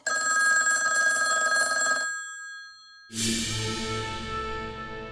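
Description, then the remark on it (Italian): A loud old-fashioned telephone bell rings at a family home on an Easter Monday afternoon, a continuous metallic trill for about two seconds, a brief pause, then another bright clanging burst that slowly decays. “Il lunedì di Pasquetta, nel pomeriggio, a casa Montesi squilla il telefono.”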